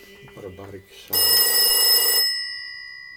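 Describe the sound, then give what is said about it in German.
A hermit's old-fashioned, cream-coloured rotary dial telephone rings its mechanical bell in one loud, rattling burst of about a second, then its metallic tone lingers and fades. A voice speaks briefly just before the ring. “Ein altmodisches, cremefarbenes Ding mit Wählscheibe.”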